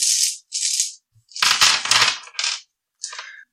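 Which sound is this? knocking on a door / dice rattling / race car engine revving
dice rattling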